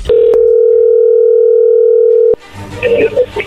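A telephone ringing tone sounds as one steady, loud, mid-pitched hum lasting about two seconds, then cuts off abruptly as muffled voices and line noise take over.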